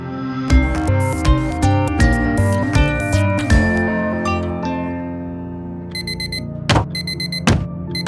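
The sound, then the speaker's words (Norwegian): An alarm clock goes off as a person gets up, starting with a loud chiming electronic melody, then switching to rapid, high beeping bursts punctuated by a few thumps. No one speaks. “Nå hører du meg stå opp.”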